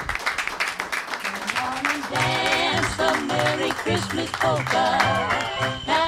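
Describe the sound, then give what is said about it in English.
An audience applauds a panel with a dense, steady patter of clapping, and after a couple of seconds loud music with sustained tonal notes and bass comes in over the continuing applause. “A big round of applause for our thank panel.”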